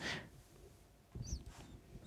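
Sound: dog snorting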